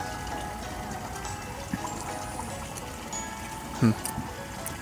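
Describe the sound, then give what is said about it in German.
Steady trickling and splashing water from a sewer runs through the whole recording, sounding like a small stream, with a brief louder splash near the end; no one speaks over it. “Hört man eigentlich das, das Plätschern im Hintergrund? Das klingt, als wären wir neben einem schönen Bach und nicht neben einer gammeligen Kanalisation.”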